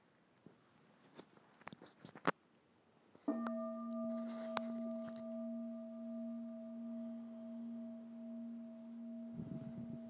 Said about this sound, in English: And I think I heard a muffled bell, so I will hand this off.